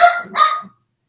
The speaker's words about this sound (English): And my uh, my helpers, you can probably hear them in the background. Uh, I have uh, uh two rambunctious chihuahuas uh, that are supervising me today, and so hopefully they're not too distracting.